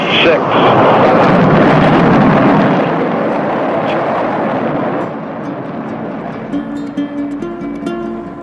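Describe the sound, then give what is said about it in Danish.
A powerful rocket launch roar of a crewed mission to the Moon, a dense rumbling wall of noise that stays loud for several seconds, then eases off as music fades in underneath. “der skal blive det første menneske til at træde på en anden planet, sidder klar til at fuldføre, hvad indtil nu har været en mytisk fremtidsvision, mennesket har drømt om i generationer, at rejse til og gå på månen. 10, 9, ignition sequence start, 6,”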